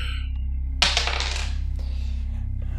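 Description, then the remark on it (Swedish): A die is rolled and clatters across a hard surface in a quick burst of sharp, bright rattles that taper off after about a second, over a steady low hum. The roll comes up a six. “Jag slog en sexa.”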